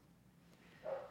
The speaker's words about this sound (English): By the way, everybody who hears a dog barking, that is my dog downstairs. He is. Anytime I have a guest over, he just needs to be jumping all over them. So 100%. That's why he's barking because he's in the other room.